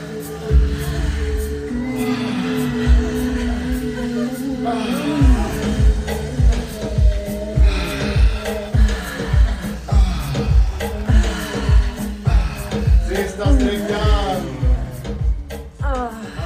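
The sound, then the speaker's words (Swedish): Fifteen people breathing heavily together in a steady, rhythmic pulse during an intimate erotic breathwork session on a living room floor at home, with moaning, droning voiced tones rising and falling over the breaths, loud throughout. “så här lät det alltså senare på kvällen efter inspelningen när … ledde 15 personer i en intim, erotisk breathwork på mitt vardagsrumsgolv”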